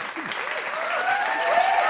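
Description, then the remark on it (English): A studio audience claps steadily for two seconds, the dense applause swelling slightly toward the end, with a few whoops and cheers rising above it. “Let's give him a hand. Studio audience.”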